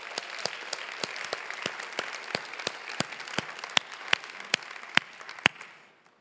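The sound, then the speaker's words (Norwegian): An audience breaks into applause for people sitting among them, many hands clapping in a dense, steady patter with a few sharper claps standing out, holding for several seconds before fading away quickly at the end. “Så vi må gi dem en applaus siden de sitter her.”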